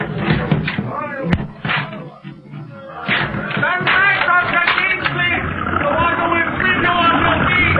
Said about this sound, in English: Door. They're breaking it down. It's the rescue party.